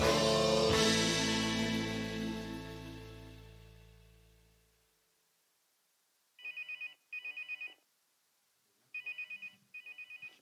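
Music fades out, then a phone ringtone trills loudly in two pairs of short electronic bursts separated by a pause, with no talking.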